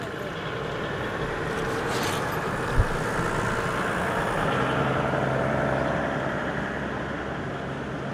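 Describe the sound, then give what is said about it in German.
A steady low rumble of passing cars picked up through the ground by a contact microphone sunk into the joints of cobblestone paving, with a broad, muffled drone and a single brief knock midway, continuous throughout. “Es registriert vorbeifahrende Autos, Fahrräder und Schritte im Umkreis mehrerer Meter.”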